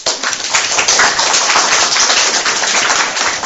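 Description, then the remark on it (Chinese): An audience at a talk applauds to welcome the next speaker, a dense crackle of many hands clapping at an even, loud level for a few seconds, with no voices over it. “那我们下面有掌声有请与光同尘小姐。”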